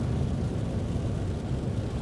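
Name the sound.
electric car driving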